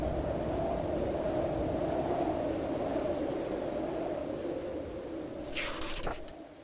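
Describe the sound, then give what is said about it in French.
Heavy rain pours steadily in a dense wash of noise, with a deep low rumble of thunder beneath it and a brief crackling burst near the end. “le lac se déchaîne et tous les pirates regagnent leur poste pour maintenir le cap dans la tempête.”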